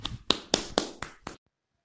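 Brief applause welcoming a teacher who will explain a short story at a storytelling event: about six crisp, evenly spaced claps in a quick steady rhythm, moderately loud, then the sound cuts to silence. No voices are heard.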